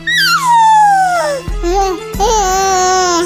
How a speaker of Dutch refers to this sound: Nou, schattig toch Babygeluidjes.